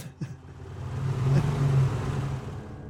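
A car engine revs up steadily, its low mid-pitched drone swelling in loudness and holding strong before easing slightly, with no talking.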